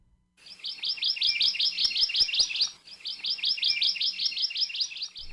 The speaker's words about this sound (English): In Ohia forests all over the Big Island, you can hear the song of the Hawaii amakihi, it's one of over 50 species known as Hawaiian honey creepers that all trace their ancestry to a single finch that came from Asia to Hawaii over 5 million years ago.